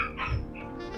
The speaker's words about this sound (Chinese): 啊，狗狗又在叫了， 好可爱哦！